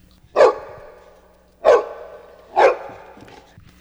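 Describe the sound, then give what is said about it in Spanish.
A dog barks three times in a steady rhythm, each bark sharp and fairly loud with a short tail, with no talking. “A veces le daban los extraños que mm, pasaban cerca de nuestra casa y a veces cuando salía la, le ladraba a otros perros.”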